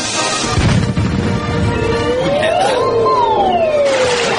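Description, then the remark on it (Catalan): Loud, steady applause from an audience welcoming a fakir performer at the Moxiganga show fills the whole stretch as a dense wash of clapping, with a whistle-like tone rising and then gliding back down over it. “I aquest fort aplaudiment al nostre home va vingut de terres molt i molt llunyanes,”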